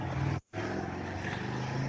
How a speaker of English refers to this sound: All right. Uh, that was a car. yep. Yeah, uh, I was like, I just muted too late.